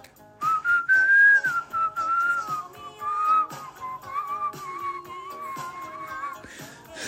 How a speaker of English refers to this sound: She didn't know I could whistle.